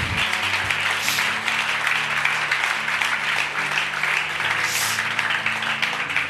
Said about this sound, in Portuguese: Quem crê, dá uma salva de palmas a Jesus.